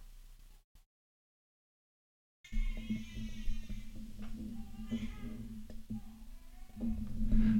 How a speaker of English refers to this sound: don't know if the microphone was picking that up, but he's crying in the background.